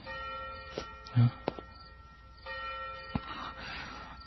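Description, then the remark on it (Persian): A deep funeral bell tolls slowly, its rich ringing tones hanging and fading throughout, with a few faint knocks and soft rustling. “میروم میروم و آنجا میدم صدای زنگ مرا میخواند اما تو ای دنکن بدان گوش مدار که این صدای آن ناقوس عزایی است که تو به بهش میخواند یا به دوزخ”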